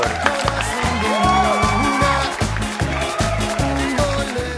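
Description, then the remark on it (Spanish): Loud, sustained applause and cheering from a crowd for a teacher, with whoops and whistles over a steady, rhythmic low thumping that pulses about twice a second throughout. “un, aplauso, por favor, al profesor.”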